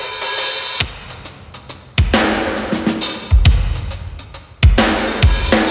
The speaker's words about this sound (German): So, alles fertig machen zum Soundcheck. Als erstes Schlagwerk bitte.